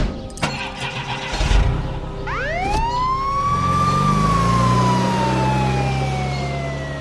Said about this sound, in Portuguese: Chama a ambulância. Chama a ambulância. A ambulância vem para levar ela